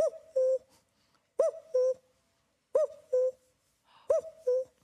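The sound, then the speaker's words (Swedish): A person imitates a cuckoo, voicing a two-note "coo-coo" call four times at a steady pace, with the second note lower and held slightly longer. No talking accompanies it. “Sitter uppe i en trädtopp och härmar en gök till exempel, Det är en av mina favoriter.”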